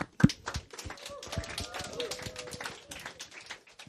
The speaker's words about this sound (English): Can we give them a round of applause as they come up?